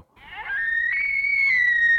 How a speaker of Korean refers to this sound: 아, 고라니나 사슴이나 거의 비슷하네. 그죠? 어, 애기가 우는 것 같아. 어, 무서워.